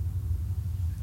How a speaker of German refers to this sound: Ja, das ist ein Flugzeug. B-25, 52 Bomber oder Keine Ahnung, es ist auf jeden Fall ein Flugzeug, das gerade über uns fliegt.